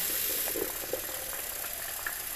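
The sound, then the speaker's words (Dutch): Cold tap water runs steadily into a water bottle being rinsed out, a continuous hissing gush with faint bubbling and sloshing throughout, no voices. “Ik spoel een waterfles van mijn zoon even om.”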